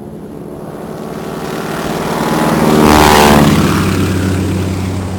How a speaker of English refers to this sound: After all the aggravation I went through just stealing this crop duster, you would think they would give me one that would fly right!